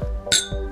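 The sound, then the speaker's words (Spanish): Glasses of whisky clink together once in a toast, a bright, ringing chime that fades quickly over a low background rumble. “Así que vamos camino a eso, libuela con el whisky. Salud. Salud.”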